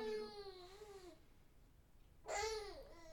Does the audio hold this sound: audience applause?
no